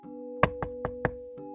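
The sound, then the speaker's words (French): Four firm knocks on the wooden door of a shed that opens onto the street, at night, at an even, steady pace, over a constant low hum with no voices. “Quand soudain, j'entendis un bruit assez fort provenant de la porte de la remise qui donnait sur la rue.”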